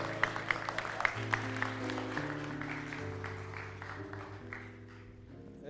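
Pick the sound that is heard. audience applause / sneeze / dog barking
audience applause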